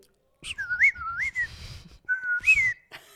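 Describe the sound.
A person whistles a short imitation of the birdsong of a daylight wake-up lamp in two warbling phrases, rising and falling trills separated by a brief pause, fairly loud with no talking.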